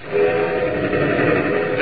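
A steam locomotive roars past with a steady, loud rumble, a sustained whistle tone sounding over the churning noise for under two seconds, with no voices.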